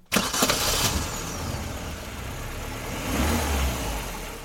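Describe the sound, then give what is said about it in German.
A car engine cranks and catches with a sharp burst, then settles into a steady rumble before revving up again, loud, with no voices. The car is being used for a trip. “Wir verreisen mit dem Auto.”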